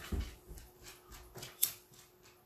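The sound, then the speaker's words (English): A dog runs around, making soft scattered thumps and scuffles with one sharp clink partway through. Fairly quiet, with no talking. “Oh, the dog's gonna go run around and make noise.”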